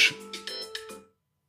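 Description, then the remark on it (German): A phone alarm rings in a quick series of bright electronic tones, about five pulses with sustained high and low pitches, moderately loud, then it cuts off into silence. “perfekt, das war mein Wecker”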